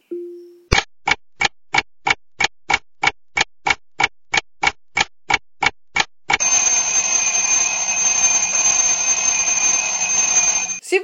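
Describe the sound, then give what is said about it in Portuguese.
A timer started on an Alexa device: a short low tone, then a steady run of sharp, evenly spaced ticks for several seconds, giving way to a loud, continuous buzzing alarm that sounds until the end. “Alexa, tempo.”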